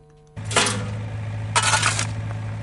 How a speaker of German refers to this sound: Auf dem Schlossberg Zwänge tönt es wie auf einer ganz normalen Baustelle. Der Bagger grabt Erden um und ein Arbeiter schaufelt Steine in die Garretten